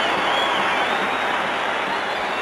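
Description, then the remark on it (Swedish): A large ice hockey crowd at Maple Leaf Gardens, everyone standing, cheers and applauds for several minutes in an ovation for Boreas Solning during the Canada Cup, a sustained, dense roar, loud and steady throughout with no pauses, the hiss of many clapping hands blending with shouting voices. “När de hade hållit på och jublat i några minuter så började han snirkla omkring på isen med huvudet nedsänkt för att han skämdes nästan över vilka otroliga hyllningar han fick.”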